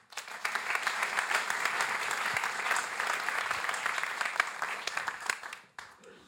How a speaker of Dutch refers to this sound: Dames en heren, mag ik een warm applaus voor Maarten Schinkel.